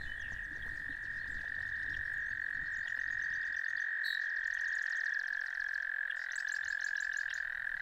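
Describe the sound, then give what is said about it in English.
A chorus of boreal chorus frogs gives repeated high-pitched, rapidly pulsed trills, several in sequence over a steady, droning background chorus of calling frogs, loud, with no voices. “The call is characterized by a high pitched trill.”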